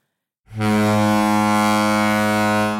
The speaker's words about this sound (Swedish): Ja, sjönödigt. Mm. Vi är inne på sjönödigt. Då nu måste vi köra vår sjönödigt-vinjett.